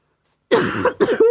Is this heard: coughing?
yes